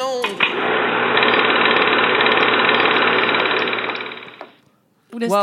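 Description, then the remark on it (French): A loud jackhammer pounds away in a rapid, steady rattle for about four seconds before cutting off; a voice is heard briefly at the start and end. “le marteau piqueur je ne suis pas responsable du bruit de marteau piqueur à la fin, je ne sais pas ce que c'est.”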